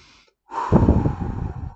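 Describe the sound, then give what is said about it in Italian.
A single deep breath, audible, with a soft airy rush that swells quickly and then eases off. No one speaks. “Poi fate un bel respiro profondo”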